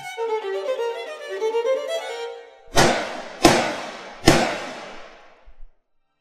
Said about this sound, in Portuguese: A pistola que o segundo homem tirou do bolso do sobretudo era pequena e muito luzidia. Foram três tiros contra o corpo gordo e desengonçado do lojista.